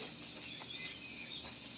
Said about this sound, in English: Those birds are loud as fuck.